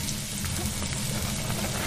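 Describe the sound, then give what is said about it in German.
Steady crackling sizzle of onions sautéing in hot oil in a pot, a dense continuous hiss with scattered pops, alone without talk. “In einen Topf mit Öl die Zwiebeln andüsten.”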